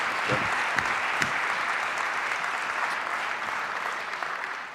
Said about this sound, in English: Um, should we, I think we want to give him a round of applause, don't we? Yeah, yeah, we do.